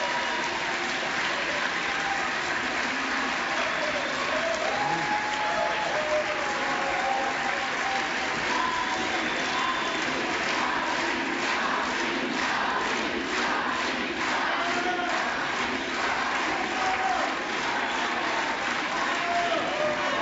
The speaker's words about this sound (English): cheering? Is that what's going on? Yeah, they're cheering for Hakeem.